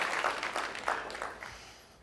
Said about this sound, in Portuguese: amén, puede dar un aplauso a Dios por eso